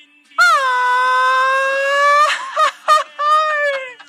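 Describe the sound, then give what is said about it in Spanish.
A traditional Mexican grito rings out into a microphone: one loud voice holds a long, high wail, breaks into a few quick yelping bursts, then trails off in a final drawn-out cry. “Te prestamos el micrófono para el gritito mexicano.”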